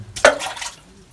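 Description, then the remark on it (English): A single thrown rock plunks into water: a sharp splash with a brief hollow plop, followed by a short spray of droplets that quickly fades. No one speaks. “Can you throw another rock in there?”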